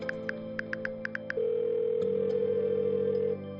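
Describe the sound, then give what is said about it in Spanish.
A steady telephone dial tone hums, opening with a quick series of short keypad beeps before the continuous tone carries on, shifting slightly partway through; no voices. A man is dialling his mother, his first call from Europe. “La primera llamada desde Europa será ella, su madre.”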